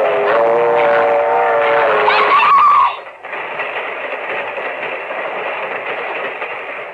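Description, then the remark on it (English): A loud train horn blares for a couple of seconds, then gives way to a steady rumbling roar as the train rolls along the track. “My foot! It's caught in the train! It's not coming down your track. It's coming down this one.”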